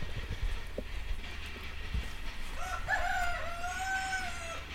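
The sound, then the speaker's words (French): A rooster crows once in the latter half, a drawn-out, wavering call rising over a steady low rumble of background noise, during a walk in the vineyards of la Cabrerie, a farm in Longomaille. “Ça y est, on a eu le coq.”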